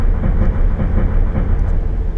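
A train rumbles steadily along the rails as it approaches a station, a dense low-frequency roar with faint rhythmic clatter, fairly loud, with no voices present.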